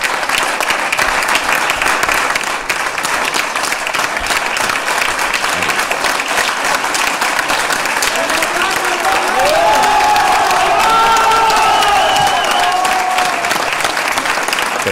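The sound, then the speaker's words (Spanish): Sustained, dense applause from a large crowd applauding Francisco Igea fills the whole clip, with cheers and whoops rising above the clapping in the second half; no one speaks. “Están aplaudiendo a Francisco IGEA.”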